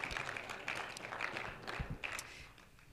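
A seated church audience claps their hands unto the Lord in a steady, dense patter of applause that carries through the whole moment and eases off slightly toward the end.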